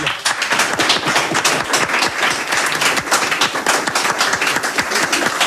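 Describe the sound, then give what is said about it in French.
An audience at a live public broadcast in the bar Le Centre applauds the bar owners hosting them, dense overlapping claps forming a continuous, fairly loud patter that holds throughout without pauses, with no talking over it. “Et je pense qu'on peut euh, applaudir en tout cas les personnes qui nous accueillent.”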